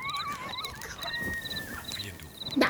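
Thin, wavering coyote howls rise and fall, sliding between pitches, while a steady pulsing chirp of insects repeats in the background of a quiet night.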